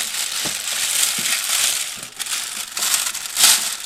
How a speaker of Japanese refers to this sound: 今ね、今日ゴミの日だったんで、ゴミ出したから、その、ゴミ袋をね、ゴミ袋を今、ゴミ箱に装着したとこ。ガッサガサガッサガサ。めちゃくちゃだよね。